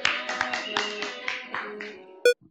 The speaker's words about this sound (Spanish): Se puede aplaudir.